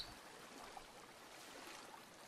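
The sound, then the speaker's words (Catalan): Steady, soft rushing of water of a mountain stream running between stones, a continuous gentle hiss with no voices, heard at low volume. “Un riu de muntanya, amb l'aigua que va corrent entre les pedres.”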